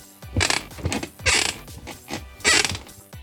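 A wooden chair creaks and groans in several uneven, strained bursts, fairly loud, each squeak stretching for a moment before the next. No one speaks.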